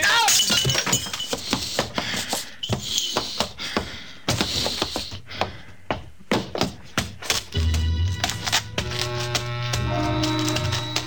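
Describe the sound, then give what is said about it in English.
A lamp, knocked over when two people topple into it, smashes with a loud flurry of crashing, breaking glass and clattering thuds over several seconds, then a steady low humming tone takes over. “Got to his feet and tried to drag me up with him, and then both of us toppled over into a lamp.”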